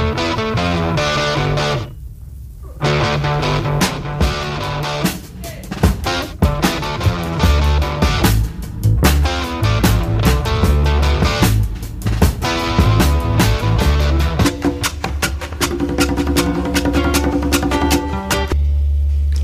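A loud rock band plays with distorted electric guitars, driving drums and steady bass, the dense full-band sound running continuously for the whole stretch with no talking.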